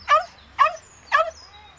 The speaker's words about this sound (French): Les chihuahuas l'encerclent. Même s'ils sont minuscules, ils aboient et ils grognent.